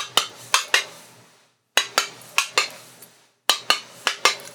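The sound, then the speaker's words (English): A train steward bringing coffee knocks on a compartment door on a train: light, crisp tapping in three quick bursts of about four taps each, separated by short pauses, with sharp bright clicks and nobody talking. “This is how he knocks on the door. Are you ready? Like that. Just tap, tap.”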